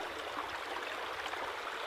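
A steady, dense rush of falling water roars without pause, a constant hiss-like wash that stays even in loudness throughout, with no voices present.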